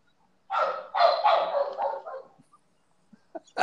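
A dog lets out a quick run of rough, harsh barks that merge into one another, followed by a brief pause and a few short, fainter yips near the end. No one speaks.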